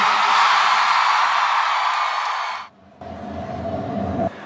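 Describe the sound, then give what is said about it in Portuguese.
A big concert crowd in Salvador roars and cheers loudly for a couple of seconds, a dense wash of shouting that cuts off abruptly, followed by a quieter, steadier stretch of noise. “Quem gostou, joga a mão e dá um grito, Salvador.”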